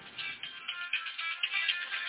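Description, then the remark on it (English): A mobile phone ringtone plays continuously, a bright, melodic electronic tune with sustained tones, fairly loud, with no talking over it. “Excuse me, that's my phone going off.”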